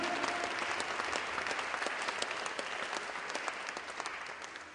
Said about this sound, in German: You better give God a praise. Gib Gott einen Applaus dafür. You better. You better.